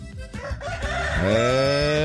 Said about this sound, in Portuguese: É, o Galo tá aí já, tá chamando.